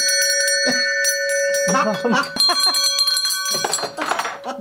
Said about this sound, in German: Viele Glocken, alle möglichen Arten von Glocken.